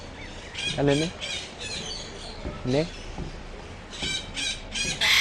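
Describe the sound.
A pet parrot lets out a run of harsh squawks and rising calls in several bursts, while a person speaks a few short words between them.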